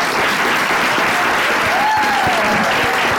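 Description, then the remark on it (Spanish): An audience bursts into steady, loud applause for Benny Barra, a dense wash of many hands clapping continuously for a few seconds, with a faint whistle rising briefly over the noise. “Un aplauso para Benny Barra”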